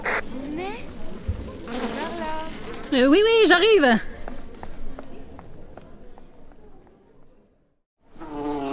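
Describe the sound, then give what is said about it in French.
A fly buzzes with a wavering, rising-and-falling drone for about a second, sandwiched between bits of speech, with other chirpy cartoonish sounds around it. “En tout cas, elle a quand même l'air un peu perchée, cette couleur, avec sa pote la mouche.”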